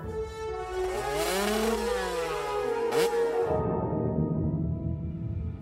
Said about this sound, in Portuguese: Ela sentia cada vibração nas mãos, nas pernas e nos pés. Mas o rugido do motor